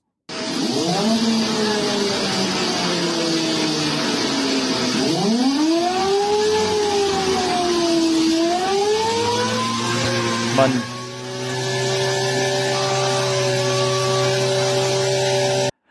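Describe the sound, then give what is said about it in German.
A small propeller motor whines and revs, its buzzing pitch climbing, dipping and climbing again like a moped engine, steady and fairly loud over a constant windy hiss. “Man hört da so einen Propeller ja. hochdrehen.”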